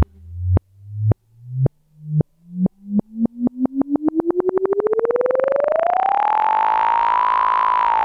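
An electronic song played backwards: separate pulses start slow, speed up steadily and blur into a buzzing synthetic tone that glides upward in pitch, then holds level and loud. No voices.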